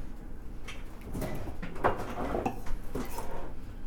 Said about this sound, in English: I'm literally smashing grapes right now. You're literally guys. smashing grapes right now. Yeah. And ideally, that's gonna well, oh. it's gonna smash grapes into a cocktail.